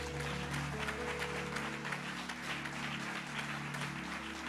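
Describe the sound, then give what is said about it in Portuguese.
An audience claps steadily for several seconds, a dense patter of many hands, while a low sustained keyboard or organ tone hums underneath. “Você quer aplaudir? Então vai, você gostou, né?”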